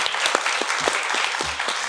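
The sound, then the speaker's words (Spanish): A crowd applauds steadily for a questions-and-answers session, a dense wash of overlapping claps at moderate volume filling the whole stretch with no voices on top. “Un aplauso para nuestras preguntas y respuestas.”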